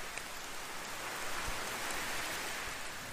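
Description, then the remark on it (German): Steady rain falls continuously, a dense soft hiss of drops with a few slightly louder patters, even in level throughout, with no voices. “Dieser Ort, an dem du bist, schützt dich vor dem Regen”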